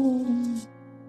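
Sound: cat meowing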